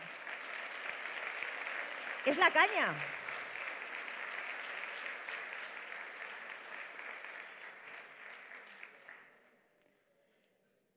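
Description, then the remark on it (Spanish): An audience applauds the Lord steadily for about nine seconds, a dense wash of clapping that fades out near the end, with a brief shout rising above it early on. “Vamos a dar un aplauso al Señor porque Dios es bueno.”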